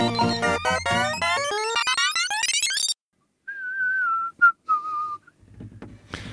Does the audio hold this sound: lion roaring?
no